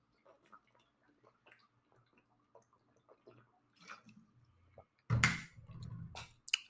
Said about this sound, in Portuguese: Vocês conseguem ouvir eu tomando água? Conseguem, né?